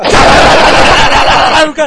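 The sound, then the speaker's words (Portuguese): A loud, dense burst of rapid machine-gun fire in a Bruce Willis film scene, fired to show the gun is not loaded with blanks, rattles continuously for under two seconds, ending abruptly with a short voiced sound. “Pega a metralhadora.”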